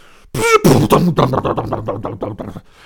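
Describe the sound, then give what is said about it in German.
A voice mimics a school chair sliding about half a metre across the floor and toppling over: a squeaky scraping screech, then a loud clatter trailing into a quick run of rattling knocks that fade out, all done with the mouth. “dieser Stuhl tatsächlich einen halben Meter so über den Boden gefahren ist und dann umgefallen ist”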